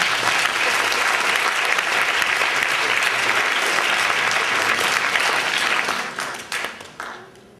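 At the close of the 21st rencontres, with a prize-giving, an audience claps steadily in a dense, loud burst of applause for a speaker about to give closing words, holding for several seconds, then thinning into scattered claps as it dies away.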